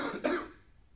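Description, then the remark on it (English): A single short cough bursts out sharply, preceded by a brief throaty rasp, then trails off into near silence. “every time I start going, I get a cough.”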